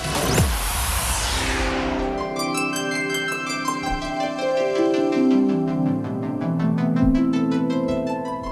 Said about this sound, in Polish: zacznę tak niestandardowo od muzyki, którą teraz słyszycie, bo to jest jedna z największych zalet moim zdaniem tego remake'u